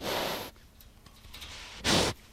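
A wild boar grunts with two short, breathy, snorting bursts: a longer one at the start, then a quieter pause and a second, sharper huff, fairly loud.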